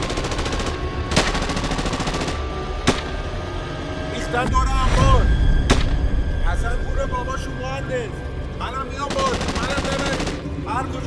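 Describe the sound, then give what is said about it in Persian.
Heavy gunfire with sharp single cracks and rapid automatic bursts that swell louder and denser midway, over a constant rumbling din with muffled shouting voices in the background. “صدای تیراندازی شدید و شدیدتر میشد”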